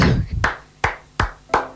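A few sharp hand claps, about four, spaced unevenly at a relaxed pace, fairly loud, with no talking over them.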